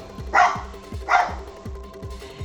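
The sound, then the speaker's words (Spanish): Two sharp barks from a dog named Firulais ring out about half a second apart, loud, over a low rhythmic thumping background. “¿Cuál es la ladradera que tienes?”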